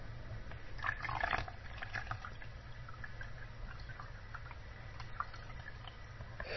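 Water is poured from a cup back into a jug: a soft trickling and splashing, busiest near the start and then settling into a quieter, steady gurgle with faint drips. No one speaks.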